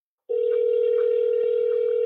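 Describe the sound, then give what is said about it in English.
After a brief silence, a telephone dial tone starts while a call is placed to a real estate broker, humming on steadily, a loud, unbroken single pitch with no voices over it. “Nobody answers their phones. We'll try”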